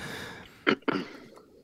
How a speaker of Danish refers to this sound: Jamen, det gør da ikke noget, du sidder lige og rømmer dig.